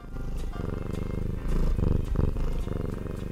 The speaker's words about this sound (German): Ja, das ist das Schnurren einer Katze.